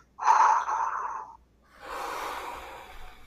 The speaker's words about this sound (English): And blow on it like this.